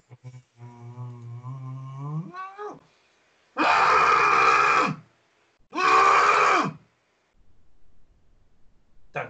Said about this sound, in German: Wer schreit denn da gerade so? Ich!